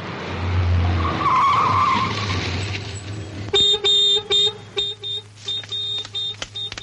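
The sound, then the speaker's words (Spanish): A car rolls up to the door of a chalet with a rushing engine and tire noise, then stops. Its horn blares in a loud string of short honks to alert someone, some clipped and rapid, others slightly longer. “Alfonso llega en su coche hasta la puerta del chalet y toca el claxon para avisar a Sara”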